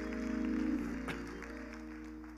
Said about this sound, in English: Come on, give God a hand clap of praise for our sister.